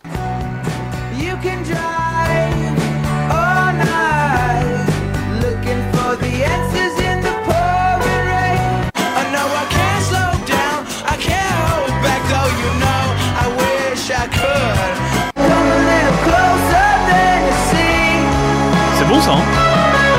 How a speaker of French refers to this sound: distillant un rock tantôt garage, tantôt bluesy, tantôt indie ou alterno. Alors pour vous donner un petit échantillon,